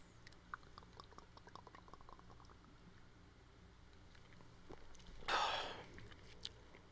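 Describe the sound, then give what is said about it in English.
Soft clinks and faint handling noises, then a short splashy pour of liquid lasting under a second as a shot is poured. No one speaks. “So on that somber note, let's do a shot.”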